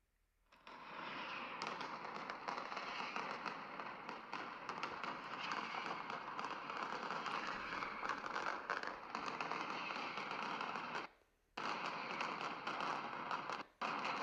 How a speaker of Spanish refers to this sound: Eso es una mascletá. La mascletá es cada día a las 12 kilos y kilos, toneladas y toneladas de pólvora, petardos, toda la gente en la calle escuchando y sintiendo.